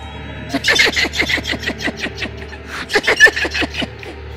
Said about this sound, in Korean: 아주 괴상한 웃음소리를 내면서 주희 씨를 노려보는 거예요